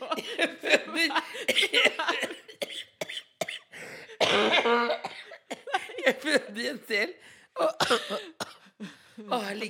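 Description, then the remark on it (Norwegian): A person coughs several times in short, harsh bursts, mixed with voices talking and a few chuckles. “Sånn hoster du. Host, da.”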